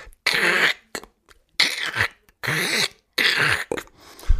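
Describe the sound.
A voice mimics loud crunching of potato chips, as made by an audience member biting into a small bag of chips in a concert hall during a break, with four harsh, breathy bursts in an uneven rhythm, each about half a second long, fairly loud with brief pauses between.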